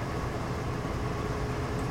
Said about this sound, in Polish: Teraz czekamy na przejazd właśnie na przejazd właśnie tego pociągu